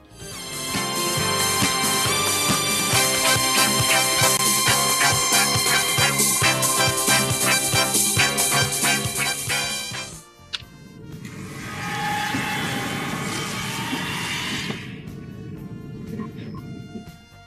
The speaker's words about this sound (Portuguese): Então rola a vinheta.